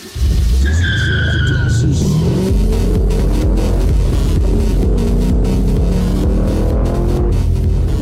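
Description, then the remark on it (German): A colourful, flashy car's engine roars on a street, revving loudly with rising and falling tones and a brief high whine at the start, staying loud for the full eight seconds. “Das ist doch mal ein Auto.”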